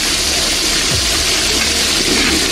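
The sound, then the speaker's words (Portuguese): A toilet flush: a loud, steady rush of water with a broad hissing roar that holds unbroken for a couple of seconds, with no voices over it. “Vamos dar descarga em Thales Guerra.”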